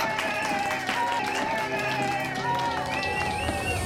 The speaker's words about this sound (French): À l'annonce du verdict, la salle applaudit. Fort, très fort.